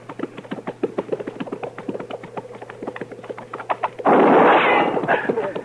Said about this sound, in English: that shot came from back there.